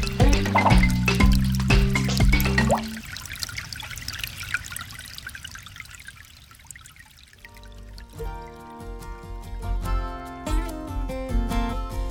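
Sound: water dripping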